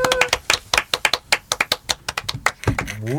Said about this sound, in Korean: 출연해 주셔서 다시 한번 감사합니다. 감사합니다. 감사합니다. 감사합니다. 네. 자 박수 치면서 보내드리도록 네. 하겠습니다.